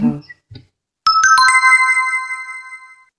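A mobile phone ringtone chimes out loud, a quick run of bright melodic tones that then rings on in sustained notes for about two seconds, following a brief bit of voice.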